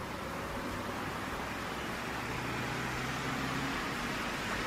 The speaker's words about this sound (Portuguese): O barulho dos carros por enquanto.